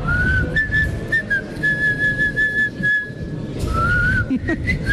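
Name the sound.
person whistling a tune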